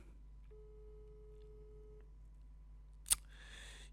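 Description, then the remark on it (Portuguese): A single steady ringback tone from an outgoing phone call buzzes quietly for about a second and a half, then a sharp click is followed by a burst of hiss as the line connects. “E vou ligar aqui”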